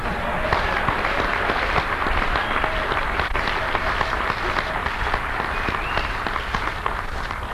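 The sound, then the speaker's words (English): Loud, sustained audience applause with dense overlapping claps and occasional cheers or shouts, holding steady for the full length without pause. “Now, I, I, had people applause just like that for about 10 times before she finally said to me at one of our debates,”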